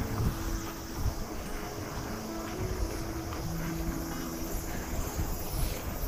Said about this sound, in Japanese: 風が結構出てきたっすね。でも、向かい風ではなくなってきたんで、まあ楽といえば楽かな。